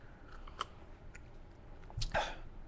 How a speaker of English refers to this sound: Taking a sip of uh, Mountain Dew, the official soft drink of Parareality Radio